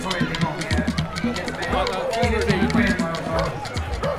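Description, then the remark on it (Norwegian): Steady murmur of a large crowd of runners gathered outdoors at the start of a half marathon, many overlapping voices chatting at once with no single speaker standing out. “Stort felt også på halvmaraton.”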